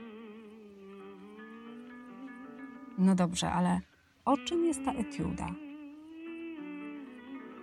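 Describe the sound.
A song with a sustained, wavering female vocal plays steadily in the background throughout, while a man speaks briefly over it in the middle.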